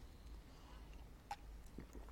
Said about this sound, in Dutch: Even een slokje water, mensen.